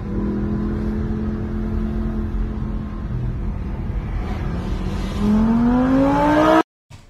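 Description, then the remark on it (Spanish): A sports car engine drones loudly at a steady pitch, then revs hard and accelerates, its tone climbing sharply before cutting off abruptly. No voices. “Pero están aquí con coches deportivos.”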